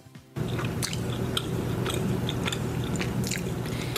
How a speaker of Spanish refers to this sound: No, no, está comiéndose desodorantes